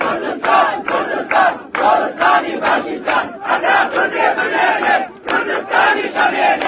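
A dense, large crowd gathered at a grave 40 days after the person's death chants slogans, including "Kurdistan will be the grave of fascism," in loud, rhythmic bursts of many voices, the phrases rising and falling with brief pauses between repetitions.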